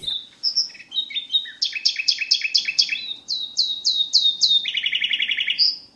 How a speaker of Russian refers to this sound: Вы говорите, что трель соловья может означать «пошел вон, это мое место».